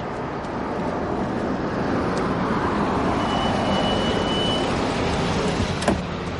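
A car engine rumbles with steady road noise, a faint high squeal midway, then a brief knock near the end as the car pulls up at a university's front steps and comes to a stop.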